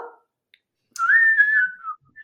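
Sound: human whistling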